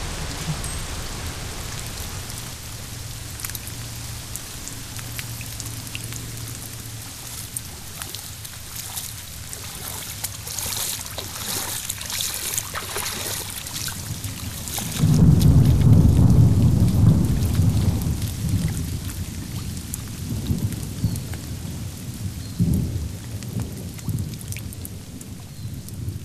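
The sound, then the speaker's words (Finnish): Steady rain falls throughout, a dense hiss of drops with a deep rumble of thunder swelling midway through and slowly fading back into the downpour. “sateessa vielä, oh yeah.”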